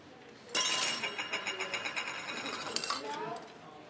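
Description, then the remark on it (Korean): Chopsticks held in a hand are dropped onto a table with a sharp clatter, then rattle and bounce in quick light clicks for a few seconds, with one more clack near the end. Fairly loud, no voices. “순간 대안은 들고 있던 젓가락을 떨어뜨렸다.”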